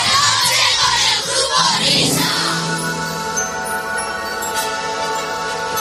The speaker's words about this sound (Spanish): Los aplausos. ahí estamos. Gracias, gracias.